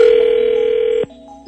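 A steady, loud telephone dial tone hums for about a second as the Scotty and the Buzz radio show on K98 FM places a call, then cuts off abruptly, leaving faint line noise and a couple of soft clicks.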